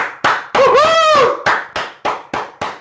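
Loud, sharp hand claps in a steady rhythm, about eight in under three seconds, with a brief whooping, whistle-like cheer sounding over the first few.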